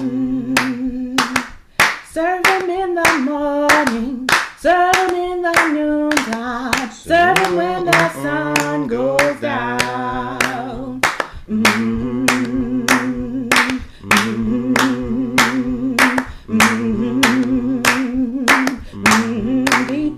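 Steady, rhythmic hand claps keep time with a sung melody, sharp and loud throughout, with voices singing over a sustained tune for the whole stretch.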